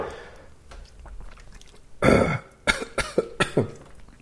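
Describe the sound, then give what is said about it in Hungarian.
A burst of harsh coughing from a person who just took a sip of Unicum liqueur erupts, followed by several shorter, sputtering coughs in quick succession, with no talking over them. “Nem, egy kortyot ívott belőle, és most köhög.”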